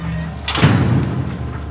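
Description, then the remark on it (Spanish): A warehouse door swings shut with a single dull thud, followed by a brief low rumble that settles into a steady background hum. “Raquel cierra la puerta.”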